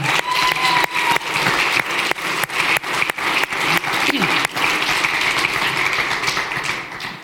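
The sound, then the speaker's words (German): An audience claps steadily for several seconds, a dense, continuous patter of many hands with a few sharp individual claps standing out, fading slightly at the end, at the Kirche im Prisma church, applauding people being welcomed. “Nochmal einen Applaus für euch.”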